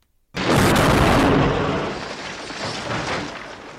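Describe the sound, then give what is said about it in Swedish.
A Mercedes, kicked in the side by James Bond, crashes over a cliff: after a beat of silence, a sudden violent impact bursts out, then a long, loud roar of grinding metal and rumbling debris slowly eases off, with no voices. “Bond sparkar till Mercedesen i sidan och bilen kraschar ut för stupet.”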